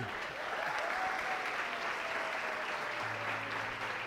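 Sustained applause from an audience, a dense steady wash of many hands clapping for about four seconds, with a low hum entering near the end and no clear speech.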